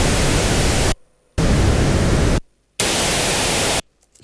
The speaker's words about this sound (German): Und jetzt hören wir uns weißes Rauschen bis rosa Rauschen an.